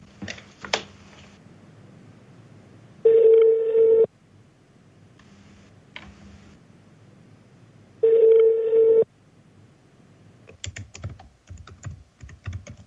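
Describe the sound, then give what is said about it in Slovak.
A phone call to a backup number rings out: two steady, buzzy ringback tones about a second long, five seconds apart, with scattered clicks before and a burst of keyboard tapping at the end. No one speaks. “telefónu voláme záložné číslo.”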